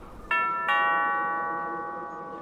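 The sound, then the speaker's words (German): A doorbell on the ground in front of a tent entrance rings with two quick bright tones, ding-dong, then the ringing hangs in the air and slowly fades away. No one speaks. “Dann klingeln wir doch mal.”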